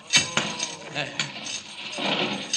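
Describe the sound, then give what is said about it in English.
Metal chains being broken: a few sharp, bright metallic clanks at irregular intervals, followed by a longer stretch of scraping, rattling chain noise at moderate loudness. “Gotta break those chains.”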